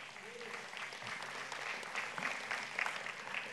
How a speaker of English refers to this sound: I mean, give teachers a hand clap.